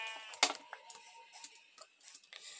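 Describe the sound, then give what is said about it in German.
A video game sheep bleats once, a short nasal baa standing out over quiet clicks and soft background game sounds, with a few faint ticks following. “Hat noch zwei Schafe und das sollte jetzt auch an Essen reichen.”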